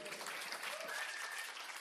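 Steady, dense clapping from an audience fills the short stretch, a continuous wash of many hands at even loudness with no voices rising above it.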